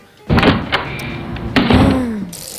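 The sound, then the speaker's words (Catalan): A few loud clunks and knocks from a bicycle bumping against a door, with clicking rattles and a brief squeak in between, no voices. “No, és una ah, bicicleta, això, però, però va a tope, va a tope.”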